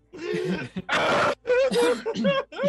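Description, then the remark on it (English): A person vocally imitates blowing their nose into someone's shirt: strained, grunting vocal sounds around a loud, breathy, rasping honk, with no words spoken. “you blow your nose into his shirt”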